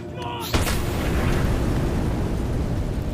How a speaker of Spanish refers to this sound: Entonces la guerrilla, pues me imagino que decidió lanzar una pipeta y estalló allá, en el púlpito.